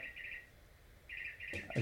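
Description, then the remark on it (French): A wall clock in a chalet plays its hourly bird-song chime, a recorded birdsong of bright chirping trills that pause briefly and resume, heard faintly, with a soft thump near the end. “C'est drôle parce que dans le chalet où on est, il y a une horloge, puis à chaque heure, il y a un oiseau différent qui sonne.”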